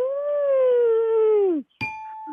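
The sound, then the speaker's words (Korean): A human voice imitates a mother cow that has given birth, lowing for her calf: one long, steady moo that sags in pitch at the end. A brief clink and a faint ringing tone follow. “여, 송아지를 낳은 엄마 소가 송아지를 부르는 소리입니다.”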